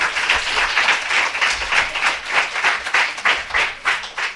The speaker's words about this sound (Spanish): Pues chicos, ¿qué creéis si les damos un fuerte aplauso para darles fuerza para que logren el ascenso?